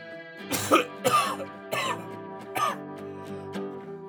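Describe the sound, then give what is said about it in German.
A person coughs and clears their throat in about four rough bursts spread over a few seconds, with a steady tonal hum or soft music continuing underneath. “So Husten.”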